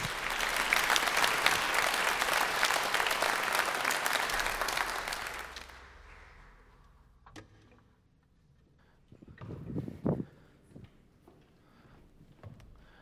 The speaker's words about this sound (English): Thanks, guys. Let's give these guys one more round, round of applause as they take their seats.